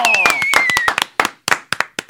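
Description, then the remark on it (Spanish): Hands clapping: a quick, dense burst of claps with a high whistling tone over the start, thinning into a few slower, separate claps near the end. “Atento a mi Aplauso”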